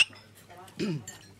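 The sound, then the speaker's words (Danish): A sharp glassy clink rings out at the start, like glasses touching in a toast, followed by a short voiced sound and quiet murmur. “Skål.”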